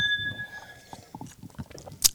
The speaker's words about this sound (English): nothing like the sound of everyone taking sips at the same time into a microphone. You're welcome, listeners.